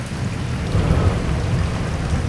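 Heavy rain pours down in a dense, steady roar on a misty, warm morning, with a deep low rumble underneath, continuous throughout with no voices.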